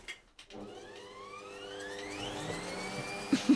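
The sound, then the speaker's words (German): An electric mixer switches on and runs steadily, its motor whine climbing in pitch as it spins up, with a continuous buzzing hum and a couple of brief knocks near the end. “Also ich kann noch einmal die Rührmaschine anmachen.”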